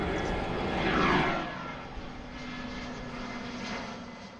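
A steady airplane engine roar in flight, swelling loudest early on with a sweeping whine, then settling into a constant broad drone with a low hum underneath.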